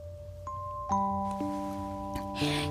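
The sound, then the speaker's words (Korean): Soft bell chimes ring out one after another, each tone sustaining and overlapping into a gentle, shimmering wash, with a faint low hum beneath and no voices. “저는 잠시 정신이 아득해졌고 어디선가 아련하게 종소리가 들려온 것 같았죠.”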